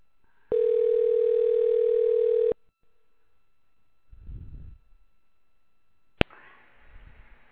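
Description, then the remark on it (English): A steady telephone dial tone hums loudly for about two seconds as a call is placed to a mother, then cuts off, followed by a soft low thump, a sharp click, and faint line hiss. “I'm going to call my mom um, haven't talked to her in a little over a week, so let's see if I can make this work.”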